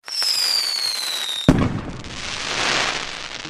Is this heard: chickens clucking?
no